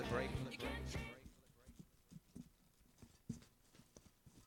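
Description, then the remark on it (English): A brief voice at the start, then a heavy gift parcel is shaken, its contents shuffling and thudding in a loose, irregular rhythm of soft knocks, moderately loud. “It sort of makes a shuffling noise.”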